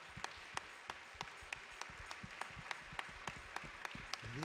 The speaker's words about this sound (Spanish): haz una ofrenda de palmas en su presencia.